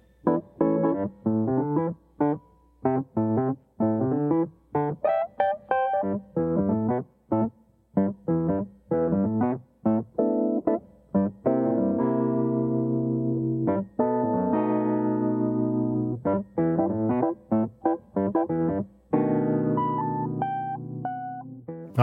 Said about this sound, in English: Oh, what a sound! So yeah. good. Fucking noisy too. Yeah, so it's noisy. Crunchy. I've recorded this Wurlitzer on pretty much every time I, I go to this studio that we were working at.